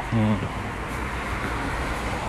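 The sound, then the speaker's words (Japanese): Steady, low road-traffic rumble from many cars, almost all white, backed up and stopped at a red traffic light at about 8:30 in the morning, a continuous hum with no distinct horns or passes; a brief voice sounds at the very start. “今信号が目の前にある信号が赤になっていましてですね車が渋滞している感じですね何台も”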